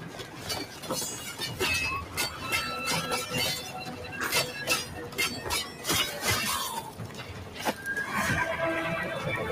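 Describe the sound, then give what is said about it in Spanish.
A horse in a video game whinnies loudly amid a busy mix of sharp clattering hoofbeats and crashing impacts, with the neighing cries rising and falling over the rapid percussive clip-clop. “Ahí en el caballo.”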